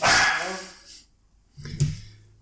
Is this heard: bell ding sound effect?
no